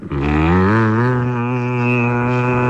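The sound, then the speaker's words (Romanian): A voice imitates the buzz of a mosquito with a lot of testosterone, a deep, steady droning hum, held loud for about three seconds without a break. “Ăsta e țânțarul de testosteron, de fapt. Așa face țânțarul de testosteron.”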